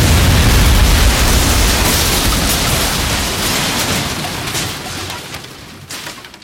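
A loud explosion opens with a heavy low rumble, then a broad roaring wash of noise slowly fades over several seconds. No voices are heard.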